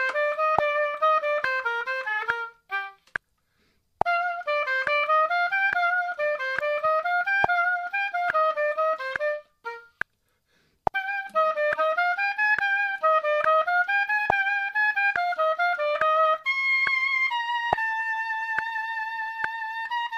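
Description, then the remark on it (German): A solo oboe plays the very first short passage of the first oboe part into a microphone in a small quiet room, a short melodic phrase with dry sound and almost no room echo, a slight scratch at the start, pausing twice before ending on a few sustained notes. “Ich nehme jetzt erstmal die erste Oboe, die allererste kurze Stelle auf.”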